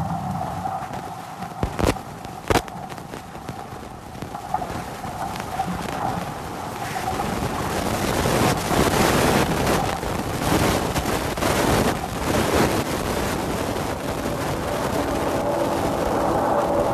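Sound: racing sailboat at sea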